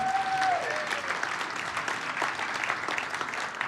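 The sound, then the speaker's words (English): A church audience applauds the people in the sound booth, dense overlapping claps sustained at an even level for several seconds, with a brief whistle-like tone sliding downward at the start. “Can we just turn our eyes and give a clap to the people in that booth?”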